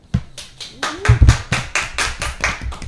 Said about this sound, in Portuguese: E aí eu vou pedir uma salva de palmas na nossa plateia.